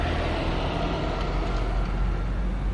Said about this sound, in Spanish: Ahí va otro camión.